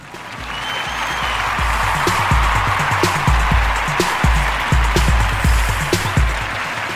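A round of applause: many hands clapping in a dense, steady patter that holds loud for about seven seconds, with sharp individual claps popping out of the crackling wash.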